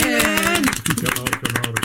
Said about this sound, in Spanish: Aplausos, por favor.